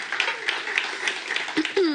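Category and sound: crowd, audience clapping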